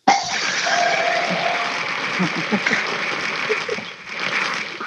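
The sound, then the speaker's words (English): A single loud gong strike with a sharp attack, then a long, shimmering metallic wash and a steady humming tone that linger for several seconds with no voices. “Give me that fucking gong.”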